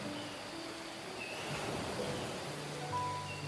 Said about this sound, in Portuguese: Sentia a brisa salgada do oceano contra meu rosto enquanto olhava para a enorme massa de água. As ondas quebraram aos meus pés. Senti a água correr sobre eles, seguida pelo filete de areia e seixos enquanto a água se recuava.